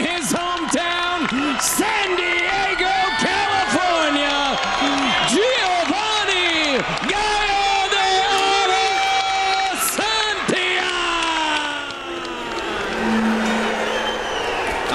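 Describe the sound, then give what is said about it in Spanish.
A boxing crowd stands, applauds and cheers in a steady, dense roar for about fifteen seconds as boxer Giovanni Santillán is introduced before the co-main event fight, while loud, drawn-out voices with rising and falling pitch ring out over the noise. “Aquí está Santillán, la presentación, el público se levanta, le aplauden.”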